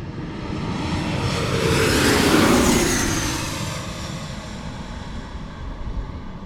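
A low-flying airplane roars overhead at Gravelly Point near Washington, its engine noise swelling to a loud peak midway and then fading away with a sweeping whine, leaving a steady background rumble.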